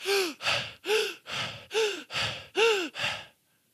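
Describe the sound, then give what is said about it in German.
A voice imitates heavy, rhythmic panting of someone running outside without music: about eight quick breaths alternating voiced gasping inhales with rough exhales, loud, then a brief silence. “Und du hörst dein Herz so bum, bum, bum, und dein Atem.”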